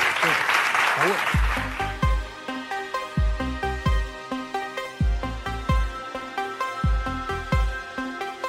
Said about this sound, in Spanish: Dale un aplauso exponencial.